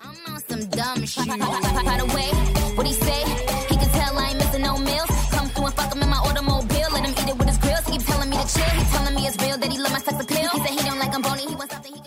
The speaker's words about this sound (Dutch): Je hoort het nummer … van ….